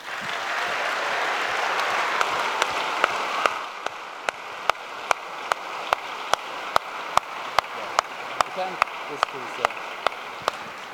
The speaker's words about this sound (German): Geben wir ihnen einen warmen Applaus